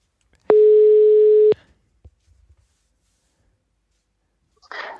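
A single steady telephone tone sounds loudly for about one second while calling someone back, then cuts off, leaving a few faint clicks and quiet before a brief burst of noise at the end.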